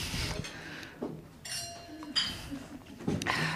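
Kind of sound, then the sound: household object, glasses clinking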